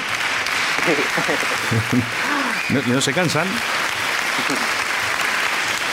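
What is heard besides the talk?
fans applauding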